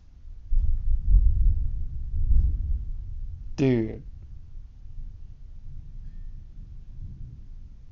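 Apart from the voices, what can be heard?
thunder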